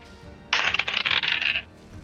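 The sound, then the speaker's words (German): A pair of twenty-sided dice clatter and tumble across a hard surface for about a second, a bright rattling burst of quick clicks that settles into stillness, with no talking. The dice land on 14 and 16. “Aber, äh, das heißt, du würfelst mit 2 W20 und das schlechtere Ergebnis zählt.”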